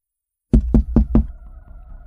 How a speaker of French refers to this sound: Un homme tape à la vitre du côté conducteur.